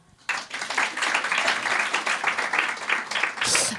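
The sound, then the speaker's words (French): An audience bursts into applause, voting by clapping on who gets a sore throat when ill, a dense crackle of many hands clapping that starts suddenly and holds steady at a moderate level for a few seconds, with no voices heard. “Attends, par applaudissement, euh, qui est malade de la gorge quand IL est malade”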